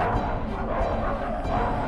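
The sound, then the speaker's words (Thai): A pack of hell hounds barks and yips over one another in a dense, continuous clamor as they chase the creatures of hell, fairly loud, with no clear pauses between the calls. “ส่งเสียงเห่าดังบนฟ้าลั่นฟ้าร้องระงมอยู่ทั่วนรก พวกมันจะคอยไล่ติดตามสัตว์นรกที่มาเกิดณนรกห่มนี้ แล้วข่มกัดไม่มีเวลาครับ เหมือนสุนัขล่าเนื้อของไอ้พรานที่ตามไล่ล่าเนื้ออยู่ฉัน”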